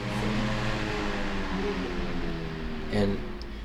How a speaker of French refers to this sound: Quand vous allumez, vous entendez un clic. Un petit clic. C'est l'interrupteur centrifuge. Quand la lame tourne, il y a un interrupteur dedans qui se déplie avec la force centrifuge de la lame. Et quand je le coupe, vous entendez le clic de retour.